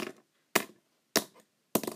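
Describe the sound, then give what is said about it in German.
A pen scratching across paper in four short, crisp strokes spaced about half a second apart, each a quick scratchy burst that fades. No one speaks. “Hört mal, der Beweis. Und das hier ist das Stift.”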